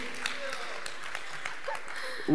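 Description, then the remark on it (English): An audience breaks into a steady patter of clapping in agreement, a dense crackle of many hands at moderate volume, with a few voices rising over it near the end. “We got some claps.”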